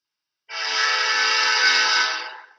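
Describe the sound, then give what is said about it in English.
A passing train's horn sounds one long, steady, loud blast lasting about two seconds, rich and brassy, then tapers off as it ends. No one speaks. “Hippie, put your flower away. There's train coming.”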